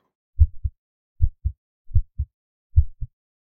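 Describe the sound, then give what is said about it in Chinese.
A pounding heartbeat sound effect, standing for a nervous shooter's racing heart at a shooting competition, thumps four times in steady lub-dub pairs, deep and low-pitched, with short silences between beats and no voices. “你你把枪一架上，这个心这个感觉嗓子眼都要跳出来了，”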